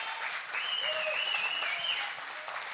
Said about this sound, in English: They did an awesome job. I'm sure you saw them as they were. Yeah, please give them a round of applause.